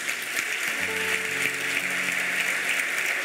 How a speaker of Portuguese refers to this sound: Você pode se alegrar com essas pessoas que estão ficando de pé, agradecer a Deus, você pode aplaudir cada uma delas.